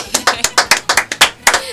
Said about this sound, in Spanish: Aplausos para ella, que le gusta que la aplaudan, vamos.